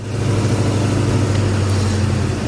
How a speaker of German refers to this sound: Ein sagenhaftes Geräusch. Und du fährst das. Mischung zwischen Traktor und Diesellok. Ja, ich glaube auch, ne? So ähnlich muss eine V200 geklungen haben, ne?